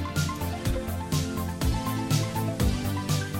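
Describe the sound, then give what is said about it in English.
An upbeat homemade song, written by a house owner about their property for sale on Rightmove and called The Never Ending Property, plays at a moderate volume, with sustained instrumental chords and a steady thumping beat roughly every half second; no singing is heard in this stretch. “But then this owner has decided to write a song all about the property and make a video uh, to accompany the song that's called The Never Ending Property.”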